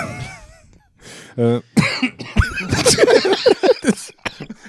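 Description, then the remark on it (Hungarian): A loud coughing fit: a short throat noise, then a rapid, uneven string of harsh, raspy coughs that carries on for several seconds. “Nem jött egy ilyen köhögés.”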